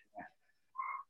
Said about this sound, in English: Is that your dog? No, that's my dog.